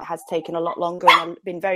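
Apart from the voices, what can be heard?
dog barking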